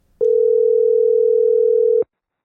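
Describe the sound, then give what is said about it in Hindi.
A telephone ringing tone sounds once while calling the Bollywood Music Centre, a Bollywood video shop in Toronto, as a steady, loud electronic hum that holds for about two seconds and then cuts off abruptly, with no voices around it. “मैं सोच रही थी कि क्या टोरंटो जैसे शहर में लोग अभी भी फ़ारूक शेख की उन पुरानी फिल्मों को याद करते हैं तो मैंने यहाँ की एक मशहूर बॉलीवुड वीडियो की दुकान को फ़ोन घुमाया”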